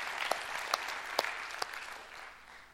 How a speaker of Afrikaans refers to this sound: Julle is spesiaal. Kom ons gee vir hulle hande klap, hè? Ek dink so, ek dink dit is nodig.